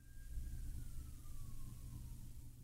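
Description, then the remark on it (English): A siren wails faintly and steadily, its tone slowly sliding downward, over a low constant rumble of traffic or engine noise. No one speaks. “You hear that siren in the background?”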